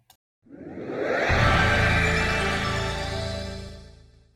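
A Nintendo 64DD disk drive startup sound: a brief click, then a bright synthetic tone swells up, hums steadily for a few seconds and slowly fades, with no talking.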